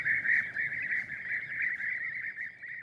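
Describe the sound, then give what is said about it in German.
Bee-eaters calling together in a steady, overlapping stream of rolling, trilled notes that never quite pause, over a faint low background rumble. “Heute tatsächlich ein paar Bienenfresser zu sehen, das wäre das Größte für Sharon und Nick Duggan”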